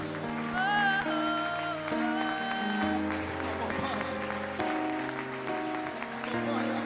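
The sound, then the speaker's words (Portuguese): An audience claps steadily throughout, a dense continuous patter blended with sustained music chords and held notes, keeping an even loudness over about seven seconds. “aplaude, salte, salte, salte, salte.”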